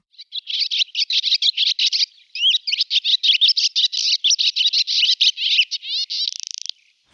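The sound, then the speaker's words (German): A barn swallow song, played back on a sound machine: a long, rapid twittering song of chattering notes, ending in a dry buzzy rattle. It is clear, with no voices. “Die Rauchschwalbe, damit machen wir mal weiter und ich spiele sie ein hier mit meiner Sound Machine.”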